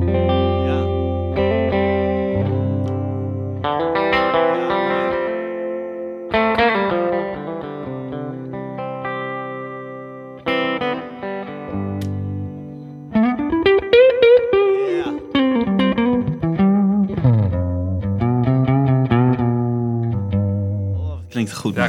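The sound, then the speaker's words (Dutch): An electric guitar plays sustained chords and melodic runs through effects, with a processed, slightly distorted tone and audible shimmer; the playing is steady, getting busier and more bent-note heavy toward the end. “klinkt echt eh, een onwijs fijne gitaar.”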